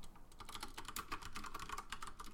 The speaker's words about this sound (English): Oh, I can hear you typing now.